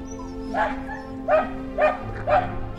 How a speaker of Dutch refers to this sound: Er zit een hond trouwens ook die janken.